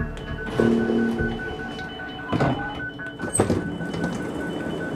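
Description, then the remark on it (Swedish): Inside a moving commuter train heading to Jordbro, a suburb half an hour by train from central Stockholm, Sweden: a steady low rumble with a faint electric whine, broken by a few rattling clunks as the carriage rolls along. No one speaks. “Jordbro är en förort som ligger en halvtimmes tågresa från Stockholms centrum.”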